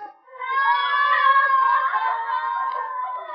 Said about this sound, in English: Do you hear? They scream sometimes like that in the night. Maybe they scream because they remember things.